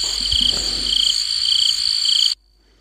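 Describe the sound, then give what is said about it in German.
Loud, dense chirping drones steadily with shrill, buzzing pulses for a couple of seconds, then cuts off abruptly, leaving near silence. “Sehr laut oh, Zirpen.”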